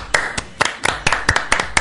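crowd, hand clapping applause

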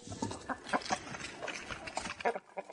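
bird, chickens clucking

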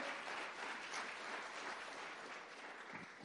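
crowd, applause

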